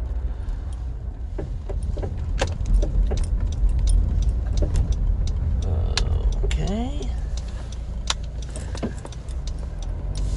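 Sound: inside a car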